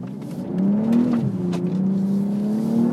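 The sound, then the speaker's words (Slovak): A car engine revs through its exhaust, a loud, throaty drone whose pitch climbs, dips briefly, then holds steady and rises again, with no talking. “To bol stále výfuk.”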